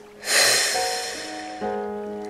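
After a deep breath in, a strong, airy breath is forcefully released in one burst and slowly trails off, while soft sustained musical tones hold steady underneath and shift to a new chord near the end.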